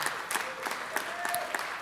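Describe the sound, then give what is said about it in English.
An audience claps steadily, a dense patter of many hands with sharper individual claps popping out at a fairly even rhythm, plus a faint high whistle-like tone drifting through. “And y'all don't clap for me, you clap for God because He's the one that resurrects lives.”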